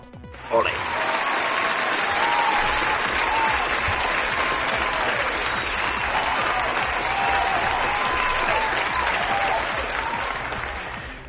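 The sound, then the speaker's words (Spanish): A loud, sustained burst of applause-and-cheering sound effect, dense clapping with crowd cheering that starts abruptly and holds steady for about ten seconds before easing slightly at the end. “Así que sí, sí, se lleva completamente el, de Página Solo of Quality y por supuesto se lleva este pedazo de aplauso de júbilo.”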